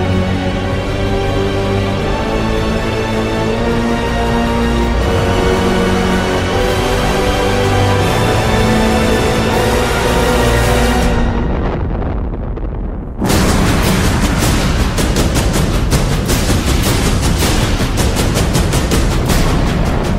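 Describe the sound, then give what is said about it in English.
Loud, dense soundtrack music: sustained brassy chords swell, briefly thin out, then heavy pounding drums crash back in with a relentless, booming barrage of hits. No one speaks. “Because he borrowed from …'s giant drum collection and just hammered the hell out of our eardrums for it.”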